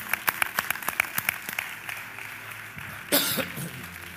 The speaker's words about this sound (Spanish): Yo aplaudo, me aplaudo solo.